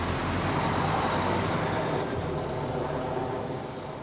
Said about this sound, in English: The engine started, and the bus's rubber tires spit out clouds of dust behind them.